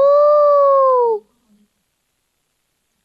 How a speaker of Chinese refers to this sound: 这时。灌木丛中传出了一声狼嚎